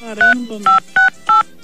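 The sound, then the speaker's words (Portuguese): Four short, evenly spaced beeps of telephone keypad dialing tones, each a steady two-pitch chirp, sound loudly over a man's voice talking underneath, as a phone number is dialed to call someone. “Liga para ele.”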